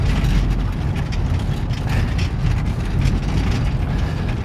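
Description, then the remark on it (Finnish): A steady, loud low rumble of a slowly moving vehicle, going only about 20 to 30, with continuous metallic rattling and juddering as a stretcher shakes and resonates against the vehicle floor throughout, with no voices. “Kyllä tää tärisee, tää resonoi aika paljon tää paari täällä auton lattiasta.”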